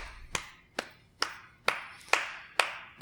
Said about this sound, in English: I'm clapping.